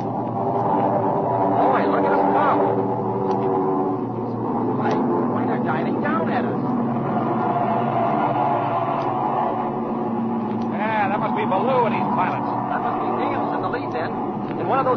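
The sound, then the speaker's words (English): A steady, droning roar of a formation of propeller airplanes, one looking like a Focke-Wulf and another a Mustang, flying overhead to the west, layered engine tones holding constant throughout, with voices talking underneath at times. “Look over there to the west. A formation of planes.”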